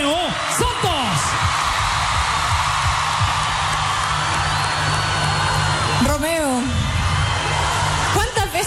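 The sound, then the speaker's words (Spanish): A large crowd of women at the Quinta Vergara screams and cheers for a bachata singer in a loud, continuous roar, with a voice briefly cutting through at the start and again toward the end. “Todas estas mujeres gritan tu nombre, están felices de compartir contigo de las propuestas que les haces también.”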